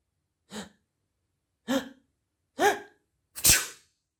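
A man, a neighbourhood shopkeeper, sneezes after a seed lands on his nose: three rising, voiced gasps spaced about a second apart build to one loud, explosive burst at the end, with no talking.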